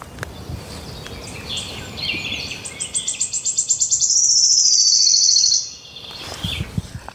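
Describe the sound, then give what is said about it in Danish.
A bird's song played back over a phone speaker: a rapid series of high chirps speeds up into a continuous shimmering trill, like a coin spinning down on a table, fairly loud and without talk. “Man kan godt forestille sig det der med at dreje en mønt på et bord.”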